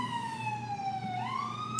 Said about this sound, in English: um, so I was definitely like Go, go, go, go. There's literally a siren.